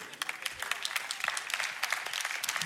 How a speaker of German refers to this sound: Kann ich einen Applaus hören?